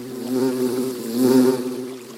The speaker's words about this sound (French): Vers le quinzième jour, pendant que son troupeau passait près d'une rivière, il entendit soudain un bourdonnement si violent qu'il en eut la chair de poule. Un nuage de guêpes se dirigeait vers eux.